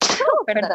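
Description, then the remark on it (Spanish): A single sharp, loud sneeze bursts out, its breathy noise trailing into a voiced tail, then after a brief pause a person laughs and speaks a short word. “¡Salud!”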